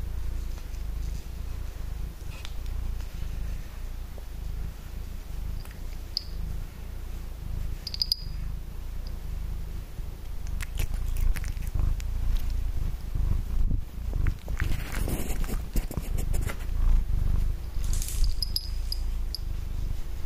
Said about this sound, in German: Da hört ihr sie gleich schnurren.